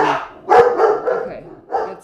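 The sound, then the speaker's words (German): Several dogs barking in quick bursts, loud, with a sharp yip in the middle and another bark near the end, one dog staring out of a window; a faint voice murmurs underneath. “hat irgendwie Coco was gehört, Juno macht mit was auch immer. Und jetzt glotzt er halt wieder aus dem Fenster raus”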